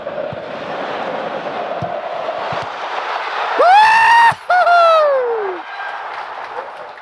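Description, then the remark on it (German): A stadium crowd cheering a football goal roars steadily, then a loud, drawn-out cheer rises in pitch, breaks off for an instant, and slides back down before the crowd noise settles again. “Also, dass wir noch einen Grund haben zum Jubeln, dass wir etwas vor Augen sehen, zeige ich dir noch ein Goal.”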